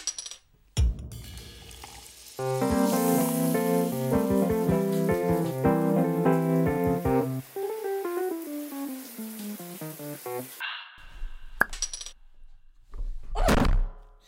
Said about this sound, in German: Ui! Das war laut, sorry. Hast du da weh getan? Nee, nee, nee. Das hat nur mein Mikro wehgetan, das geplumst ist.